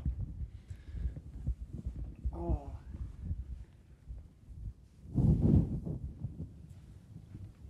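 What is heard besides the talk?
cat purring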